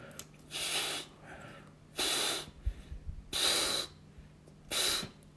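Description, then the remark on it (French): Someone blows air into an inflatable toy in four strong, breathy puffs, evenly spaced, with quick softer intakes of breath between them and no talking. “Ouais, continue, ça gonfle.”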